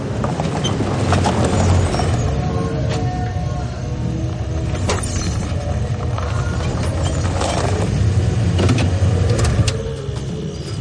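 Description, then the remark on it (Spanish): A van's engine rumbles steadily as it rolls in and comes to a stop beside another vehicle outside Club León, a secluded cabin with cars and motorbikes parked on the lawn, with scattered clicks and knocks over the low drone and no voices. “Dave aparca su vehículo junto a otro del que se baja la gente Luke que se acerca a él.”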